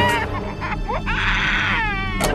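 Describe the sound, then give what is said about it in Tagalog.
An infant wails loudly and continuously behind a locked bedroom door, its high, strained cries rising and breaking in harmonic-rich bursts, with no talking over it. “Mabilis kaming tumakbo papunta sa silid namin pero nakakandado ang pinto Pumalahaw pa ng mas malakas ang aming anak.”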